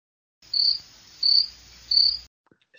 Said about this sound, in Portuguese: Silêncio. Grilos. Grilos. grilos.